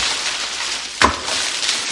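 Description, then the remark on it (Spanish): A steady rushing, splashing gush of red wine pours throughout, broken about halfway by a single sharp, thumping burst as another wineskin, struck with a sword in a wine cellar, splits open. No one speaks. “Revienta otro cuero.”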